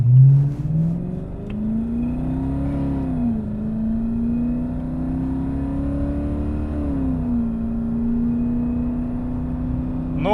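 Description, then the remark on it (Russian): A car engine of about 200 horsepower revs steadily as the vehicle accelerates, a loud, continuous droning hum whose pitch climbs, dips briefly, then holds and rises again, with no voices over it. “То есть мы разогнались, и потом нужно молиться, чтобы не было ямок, да?”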